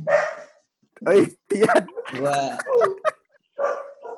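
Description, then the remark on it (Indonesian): A speaker's own dog barks several times in quick, uneven bursts, loud, overlapping with people talking briefly in between. “Maaf ya anjing saya berisik.”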